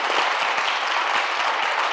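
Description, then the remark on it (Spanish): Steady, dense applause from a church audience at Iglesia Cristiana el Arca, given to the Lord for what God is doing, a bright continuous clatter of claps at an even loudness throughout, with no voices standing out above it. “Denle un aplauso al Señor por, la, por lo que Dios está haciendo a través”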